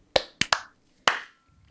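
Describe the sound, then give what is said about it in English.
Four sharp hand claps made to sync the audio of a recording, in an uneven burst, two close together in the middle, each crisp and bright with a short ringing tail, followed by quiet. No one speaks. “and then we'll clap sync in three, two, one.”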